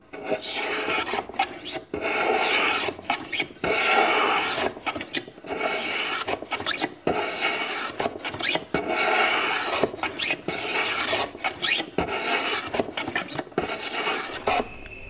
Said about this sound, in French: C'est un son que j'aime bien. Je travaille beaucoup avec les sons des outils sur le bois. Ça m'aide à voir si mes outils sont bien affûtés et où est-ce que je viens euh, enlever du bois.